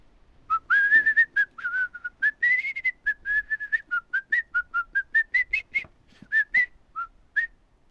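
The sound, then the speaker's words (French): A person whistles an imitation of birdsong: a long run of quick, bright chirps and short trills at a high pitch, fairly loud and rhythmic, with brief pauses and no talking. “mais chante la chanson d'un oiseau.”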